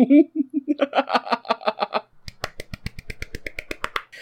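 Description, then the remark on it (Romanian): A quick, steady run of around fifteen sharp hand claps, close and crisp, following a short burst of rhythmic vocal sounds like laughter. “Asta a fost palmele.”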